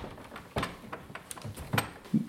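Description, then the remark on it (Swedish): A door that is hard to open is pushed shut with a few scraping clunks and knocks spread over a couple of seconds, ending in a firmer thud as it settles into place. “Det vi gör nu det är att vi ska dokumentera lite grann så ska ni få se hur svårt det är för den här dörren att öppnas. Så om jag stänger den här nu, som den var.”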